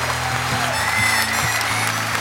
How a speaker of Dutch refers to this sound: Graag nog eens een overdovend applaus voor deze vier helden.